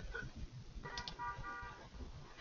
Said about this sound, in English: all of St. Louis is honking their horns. You hear that?